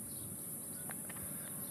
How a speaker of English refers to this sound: You can hear the chicharras in the background here. The chicharras, and I don't know how you say them in English, but are these little things that they start to make this noise in the summer you can probably hear them in the background.